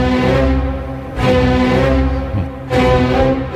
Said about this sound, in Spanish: Pero ese disco que tienes ahí, John, ahí en el, en el tocadiscos, que es la, el cuarto movimiento de la Sinfonía del Nuevo Mundo de Dorak, a ver cómo suena.